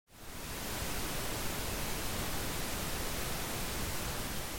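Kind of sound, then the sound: sound effect, pink noise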